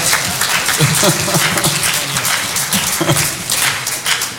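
An audience breaks into steady, dense applause that holds at an even, fairly loud level throughout, many hands clapping together with a few voices murmuring underneath.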